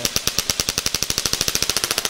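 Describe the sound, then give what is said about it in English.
Rapid, evenly spaced mechanical pulses from a shockwave therapy device applied to a person's back, about ten per second, loud, a sharp rattling tapping that continues steadily without any voices. “shockwave device for therapy applied to the back”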